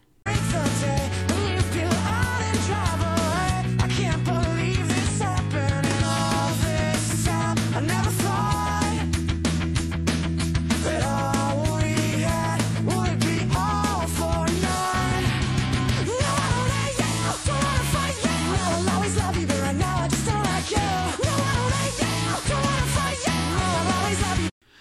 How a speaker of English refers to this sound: So, in terms of versions that definitely lose the emotional pitch, here's a bad Nightcore version that I found.